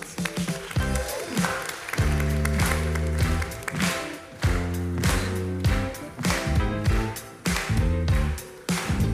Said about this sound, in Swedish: Låt mig välkomna in Maria från Magdala. Vi ger en applåd